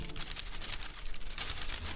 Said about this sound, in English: That is the sound of the plastic bag the little boy had left blowing across the grass.